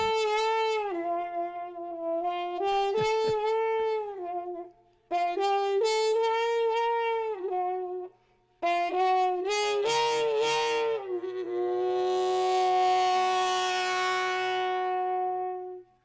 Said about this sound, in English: And it starts off with uh, some trumpet doing something weird with their hands or with a with a mute. Um, you can hear a little bit of this just to give you a flavor.